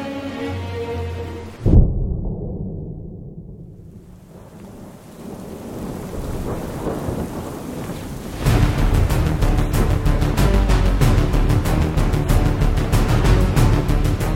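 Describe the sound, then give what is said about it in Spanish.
A sudden, loud thunderclap cracks and rolls off into a low, fading rumble, then heavy rain bursts in and pours steadily for the rest of the storm. “La tormenta apareció en un abrir y cerrar de ojos.”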